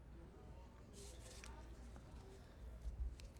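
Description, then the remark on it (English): Soft handling noises: Howard's fingers and rings rubbing and clicking against a gemstone in a few sparse, quiet scrapes and taps over a hushed background, in a film scene. “But all, all how all we hear here is Howard's fingers and rings on that stone.”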